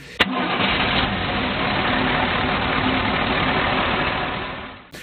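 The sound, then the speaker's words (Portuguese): A heavy diesel truck engine rumbles steadily, a dense, loud low growl that holds constant for several seconds after a sharp start, with no one speaking. “Já ouviram o ronco do pesadão diesel?”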